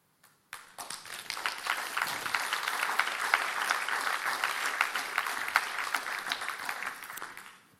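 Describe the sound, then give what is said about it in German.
An audience bursts into sustained applause, many hands clapping in a dense, steady patter that holds at an even level for several seconds before tapering off at the end. “Wenn das kein Applaus wert ist.”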